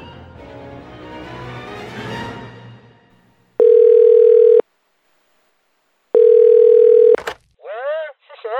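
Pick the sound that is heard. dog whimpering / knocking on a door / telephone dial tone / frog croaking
telephone dial tone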